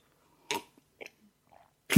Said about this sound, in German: Ja, erstmal was trinken hier.